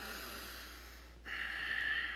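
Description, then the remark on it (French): A voice imitates a young person taking a deep breath after being given an instruction they dislike: a long, airy inhale followed by a brief pause and a stronger, hissing exhale, fairly quiet, with no talking. “vous donnez une consigne à votre jeune, puis vous savez qu'il n'aime pas ça, vous le voyez prendre une grande respiration, faire...”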